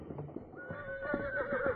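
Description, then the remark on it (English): The horse of a man who was shot dead whinnies loudly, a single long, wavering neigh rising and sliding over nearly two seconds, with faint hoof-like thuds and movement underneath. “Need that horse.”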